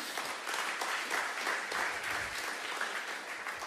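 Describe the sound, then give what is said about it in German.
An audience claps steadily for several seconds, a dense, even patter of many hands with no voices over it, holding a fairly constant level throughout. “Und Paulus sagt, Dankeschön, Mensch, klatschen dann richtig.”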